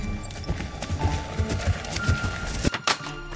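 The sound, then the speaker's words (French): Horse hooves clip-clop in a steady, even rhythm as the animal passes, the hoofbeats fairly clear over a faint background hum before a brief clatter near the end. “Un matin, alors qu'elle ramassait des baies sauvages, elle vit passer un garçon dont le cheval portait des sacoches pleines de pommes rouges.”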